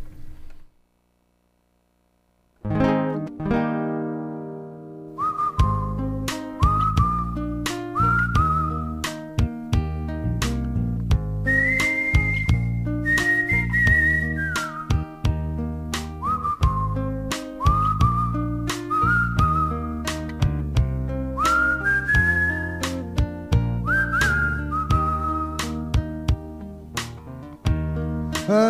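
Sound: musical interlude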